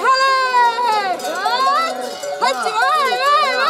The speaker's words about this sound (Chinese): 西班牙马德里一年一度的千禧放牧节在上个周末登场了，牧羊人赶着羊群穿越市中心的道路。好，平常车水马龙，现在换成了大批羊妹妹移动的景象。 羊群逛大街，当当当的声响好疗愈。